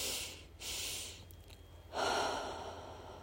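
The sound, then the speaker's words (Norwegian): Two quick, sharp sniffs in through the nose one after the other, followed by a longer, steady breath out, as a calming breathing exercise. Fairly quiet, with no talking. “Og bare pust i eget tempo. To ganger inn gjennom nesen. Fyll deg opp. Og rolig ut.”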